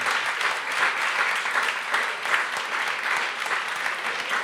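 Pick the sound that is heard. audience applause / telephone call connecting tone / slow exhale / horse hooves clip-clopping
audience applause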